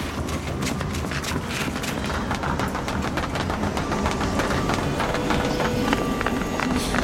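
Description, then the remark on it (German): Rapid, hurried footsteps of people running at a train station to catch a train at platform 13 slap against a hard floor in an uneven run, over a constant low hum and echoing bustle. “Wenn wir rennen, dann schaffen wir es noch.”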